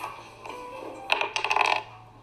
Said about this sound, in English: Let's roll the dice.